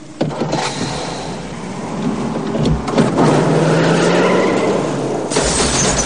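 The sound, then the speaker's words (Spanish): A car engine roars loudly at full throttle for several seconds, its pitch climbing, with harsh tyre skidding mixed into the continuous noise, as the car reverses in an alley to crash into a police car. “Mete marcha atrás y acelera a tope para chocarse con el vehículo policial.”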